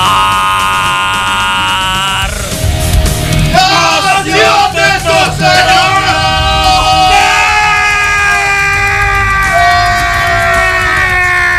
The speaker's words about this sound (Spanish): Guárdate ese grito, Misael, para cuando te dé el COVID.